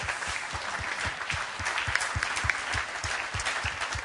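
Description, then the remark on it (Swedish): An audience applauds for the young people who made a musical, steadily for about four seconds, a dense, even wash of many hands clapping, with a faint rhythmic thumping pulse running underneath. No one speaks. “Ska vi ge dem en stor applåd?”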